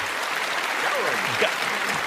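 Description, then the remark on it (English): An audience claps steadily for the next guest as he walks a lit runway, a dense wash of applause holding an even loudness throughout, with faint voices and cheers mixed into the crowd noise. “Let's give a big round of applause for”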